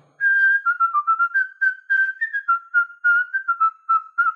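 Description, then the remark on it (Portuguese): A whistled melody of the children's song "Atirei o Pau no Gato", a clear, steady run of bright notes moving up and down in a bouncy rhythm, with short gaps between phrases. “Melodia é, por exemplo, a melodia do Atirei o Pau no Gato.”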